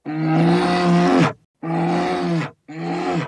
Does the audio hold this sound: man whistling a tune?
no